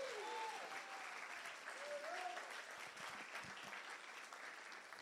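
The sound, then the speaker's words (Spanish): An audience applauds Jesus Christ loudly and steadily for several seconds, a dense, even wash of clapping with a couple of brief rising vocal cheers mixed in early on. “Si lo crees, dale un aplauso fuerte a Jesucristo.”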